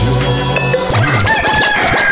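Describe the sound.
Someone imitates a chicken, a rapid run of clucking, squawky calls for about two seconds, loud, over steady sustained tones in the background.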